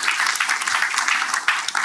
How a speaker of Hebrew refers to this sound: קודם כל, מחיאות כפיים סוערות.